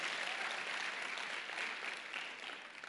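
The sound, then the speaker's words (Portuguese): A crowd applauds steadily, a dense wash of many hands clapping at an even level that tapers slightly toward the end. No one speaks over it. “Pode aplaudir, pode aplaudir, pode aplaudir.”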